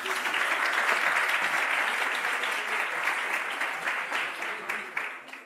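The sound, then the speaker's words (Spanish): Sustained audience applause, a dense crackle of many hands clapping at steady volume for several seconds before gradually thinning toward the end. “Aplaudid, por favor.”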